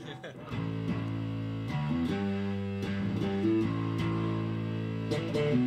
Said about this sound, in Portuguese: Deixa eu saturar bem aqui. Pra gente pegar um somzinho de um, fe... de um... De um fuzz aqui. Deixa eu dar um blend. O, o fuzz é aquele som sujão, né? Podrão.